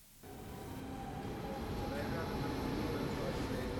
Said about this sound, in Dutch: Ik heb eh, van de week, een paar weken geleden, moet nu opeens aan denken, heb ik een kort stukje opgenomen op het station.